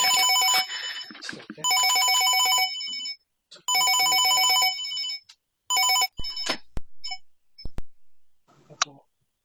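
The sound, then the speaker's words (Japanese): A phone ringtone for an incoming voice call to a live-streamed YouTube fortune-telling show chimes in three long, repeated electronic bursts, fairly loud, then a brief fourth burst cuts off into a few sharp clicks as the call is picked up. “占いしたい人は、お電話、スカイプ、スカイフォン、LINE、バイバー、インスタグラム、お電話などで音声通話で呼び出してください。では来た、では来た。”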